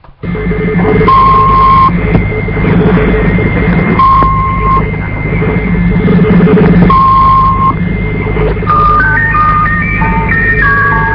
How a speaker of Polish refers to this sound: to była jedna z takich najbardziej znanych stacji numerycznych